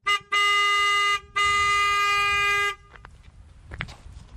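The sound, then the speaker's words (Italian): The car horn of a traveling vendor, one of those who drive around bringing essential goods such as wool sweaters to the elderly, sounds two long, loud, steady honks, the first about a second and the second slightly longer, followed by quiet outdoor background noise. “Questo era il classico clacson del degli Ulanaro, come viene denominato in questa zona, che sarebbero queste persone che vanno in giro con le macchine e portano diciamo, beni di, di necessità fondamentalmente per gli anziani, quindi maglie di lana,”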